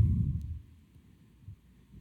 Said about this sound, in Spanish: Se oye como que está tronando, ¿no? ¿O soy yo?